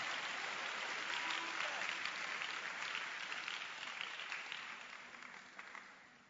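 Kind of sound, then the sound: crowd, audience clapping hands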